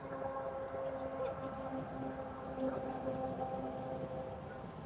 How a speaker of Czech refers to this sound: Možná se vám bude zdát, že jsme na Hlaváku, ale to ne, ty všechny vlaky tam teprve jedou. no, panečku, tak ten, tenhle, je ten je dlouhej.